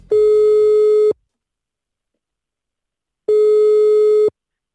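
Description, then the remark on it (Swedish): A telephone ringing tone sounds twice, each a steady one-second electronic beep followed by a pause of silence, loud and clear with no voices; a prank call being placed to a clothing shop in Kalix. “Han ska få ringa och eh, snacka lite kläder.”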